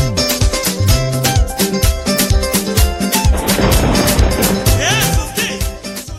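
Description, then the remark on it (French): A loud, busy musical jingle, a special jingle made for a Democratic Republic of Congo news segment, plays for about six seconds, with punchy rhythmic percussion, layered melodic instruments and a rising swoosh near the end, with no one talking. “Tiens d'ailleurs, pour l'occasion, on a conçu un jingle spécial RDC.”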